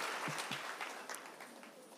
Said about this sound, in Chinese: 一个掌声，我们一起站立起来。